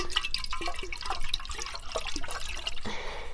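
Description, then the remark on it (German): Liquid with sugar sloshes and swirls inside a fermentation vessel fitted with a water-filled airlock as it is swirled, with splashing, gurgling bursts and small drips, fairly steady, ending in a softer hiss. No one speaks. “Damit das dann auch luftig ist, muss dann natürlich auch noch Wasser ins Gärröhrchen. Und dann könnt ihr das noch einmal so schwenken.”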